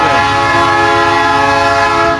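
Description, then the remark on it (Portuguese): A train's horn blares in one loud, steady chord of layered tones, held unbroken over the low rumble of the passing train, with no talking. “o trem tá passando.”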